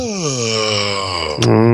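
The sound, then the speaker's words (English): A voice imitates snoring with one long, loud, droning groan that sags slightly in pitch, then breaks with a sharp snort into a lower, rougher buzz near the end. “Which way does uh-huh. the snoring seem to be coming from?”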